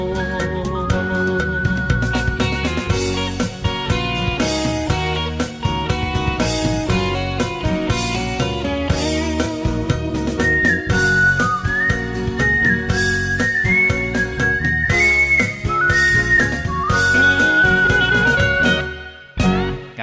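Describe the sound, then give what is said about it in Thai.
A song plays continuously at steady volume, dense instrumental backing with a high, whistle-like melodic line gliding over it, cutting off abruptly near the end. “เพลงเพราะๆนะครับ เป็นกำลังใจให้กับทุกๆทท่านครับที่ติดตามรับฟังเรื่องเล่าชาวเรืออยู่ณขณะนี้นะครับ”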